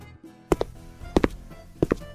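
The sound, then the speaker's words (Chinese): Heavy stomping footsteps of a teacher in a children's story, back at school, land in three evenly spaced pairs of loud, low thuds, each pair a quick double stomp, with no talking and only a faint background hum between them. “回到了学校，科比老师依然重重的跺脚，然后大熊说：“ 哦呜！”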